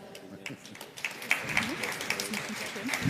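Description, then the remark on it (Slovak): An audience claps steadily throughout, a dense patter of many hands at moderate loudness, with a voice speaking faintly underneath. “Môžete kľudne aj zatlískať, aby sme tu mali trošku aj ruchy.”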